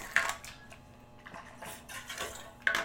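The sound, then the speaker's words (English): Someone drinks water from a plastic gallon jug: a sharp clunk of handling, a few soft swallowing gulps and sloshes, then another knock as the jug is set down. No talking. “I'm gonna drink some water now. I have my gallon jug with me.”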